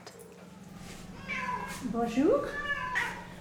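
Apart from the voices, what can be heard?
cat meowing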